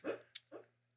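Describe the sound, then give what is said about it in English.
A sleeping, dreaming dog gives a few soft, muffled woofs: three short low bursts spaced about half a second apart, faint, with no one talking. “That's my dog's. He's he's dreaming.”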